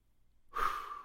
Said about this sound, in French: La clé, c'est la respiration. Prends des grandes inspirations.